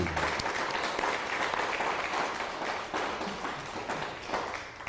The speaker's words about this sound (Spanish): Y ahora que me han criticado que porque los aplausos son, no son para el hombre, son para Hashem. Y bueno, ¿y quién le ha dicho que están aplaudiendo por mí? Que aquí no aplaudimos para ningún hombre, sino aplaudimos para Hashem.